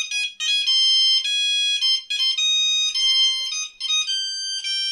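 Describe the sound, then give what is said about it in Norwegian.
A telephone rings with a bright electronic melody, repeating tonal bursts in a steady pattern, loud with no voices. “Samtidig på stasjonen tok politimesteren opp telefonen og ringte.”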